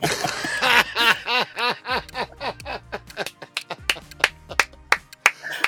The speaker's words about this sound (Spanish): Un aplauso para este hombre. Un aplauso.